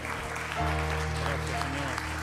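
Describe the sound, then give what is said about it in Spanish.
An audience claps steadily throughout in a loud round of applause for the Lord, a dense, continuous patter of many hands, layered over a sustained low musical tone. No one speaks. “Así que vamos a dar un fuerte aplauso al Señor”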